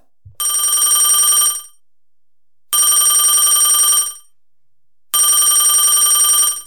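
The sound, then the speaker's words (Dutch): A telephone rings loudly three times, each burst a bright, rapid electronic trill lasting over a second, separated by short silences. No one speaks. “En wat hoor ik nou?”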